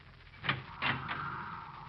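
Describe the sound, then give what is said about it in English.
A door opens: a brief clack followed by a scraping, rattling slide that trails off into a low hum. The sound is moderately quiet, with no voices. “I, I'll open the door.”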